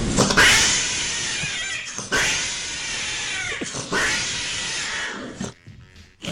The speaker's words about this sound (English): So this is now two shows this week. Which mm-hmm. we've uh, started with uh, cat passion noises.